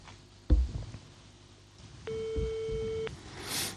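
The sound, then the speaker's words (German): A single steady telephone ringback tone sounds for about a second, tinny and heard through a handset held up to the microphone during a call to a mobile phone, preceded by a thump of handling noise and low rustling. “Jetzt Freizeichen.”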